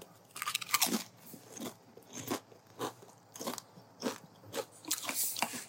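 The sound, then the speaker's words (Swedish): Crisp crunching of potato chips being chewed, with repeated bright crackly bites in an irregular rhythm and no talking. “Nu ska vi äta lite chips”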